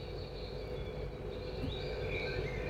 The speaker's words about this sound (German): Du nimmst schnell dein Mikrofon, tust das ganz nah in die Richtung heben und damit wirklich alle mal das Vogelgezwitscher noch hören